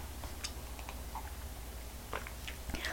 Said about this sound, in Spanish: Tengo servido el café, preparadas las noticias y también los comentarios y me voy a dar un sorbito para luego contarles qué ocurre aquí hoy en este 8 de noviembre de 2023.